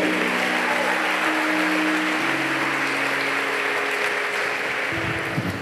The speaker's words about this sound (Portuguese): Se você crê, diga aleluia e aplaude esse Deus maravilhoso. Aleluia!